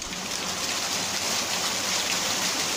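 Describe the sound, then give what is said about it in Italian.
Water rushes steadily through a water mill, a dense, even hiss and splash that stays constant and fairly loud throughout, with no voices. “In questo mulino d'acqua incontriamo il cuoco Sergio Barzetti per parlare della polenta che tanto piace a Bergomi”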